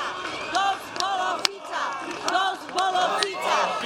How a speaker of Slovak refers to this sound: Tu za mnou práve môžete počuť silné pokriky. Postupne na toto námestie ku vedeckej knižnici v Košiciach prichádzajú ďalší a ďalší protestujúci.